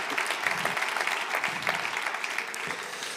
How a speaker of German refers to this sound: Gebt ihr nochmal einen Applaus. Vielen Dank, ihr beiden, das war richtig cool.